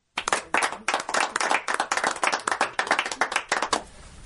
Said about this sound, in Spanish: Bienvenidos con este aplauso, por favor.